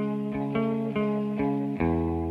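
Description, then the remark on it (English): A heavily effected electric guitar plays an intro, ringing out sustained chords with a wavering, watery tremolo, changing chords every half second or so in a steady rhythm, loud, with no talking. “The tremolo on the guitar and the intro, the like uh-huh.”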